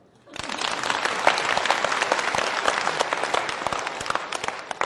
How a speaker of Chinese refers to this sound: Yes，鼓掌。